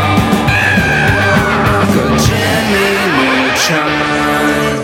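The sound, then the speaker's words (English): The theme song of the animated TV show Jimmy Neutron plays loud and steady, with a bouncy, stepping bass line under dense bright instruments and energetic, shout-like vocals. “this is the theme song.”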